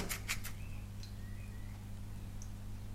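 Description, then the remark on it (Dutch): Faint bird whistles and short chirps come and go over a steady low hum, opening with a few soft clicks or rustles; no one speaks. “Ik hoor de vogels fluiten.”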